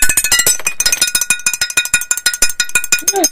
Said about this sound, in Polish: Zmienił się dźwięk. Mają inny dzwoneczek.